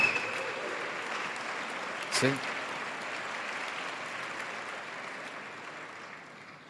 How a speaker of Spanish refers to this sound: Oh. dale un aplauso al Señor.